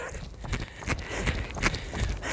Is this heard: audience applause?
no